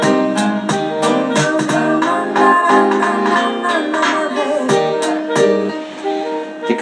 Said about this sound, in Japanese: あとそうだリバーブとかもこの「ババッパンババッパン」の方はちょっとリバーブもかけてでそして L の方に LR でいう L の方にちょっと振りました。